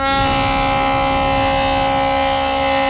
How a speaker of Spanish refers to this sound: Y son las sirenas que no paran de, tocar a la llegada de, en el atraque de, de la Virgen